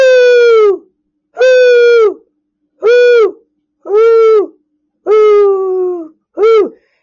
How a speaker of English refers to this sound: Now, okay, now there's an old owl, you know, an owl in the tree. And as the people are getting closer, the owl is like, whoo.